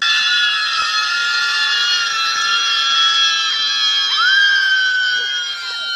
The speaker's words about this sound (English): They just yelling. Lefty losers just be yelling and shit.